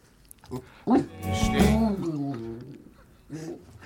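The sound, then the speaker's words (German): A female dog growls in one long, wavering vocal rumble lasting a couple of seconds, framed by a couple of short grunting sounds before and after. “Das, liebe Hörer, was ihr hier so Goren hört, das ja? ist der Hund.”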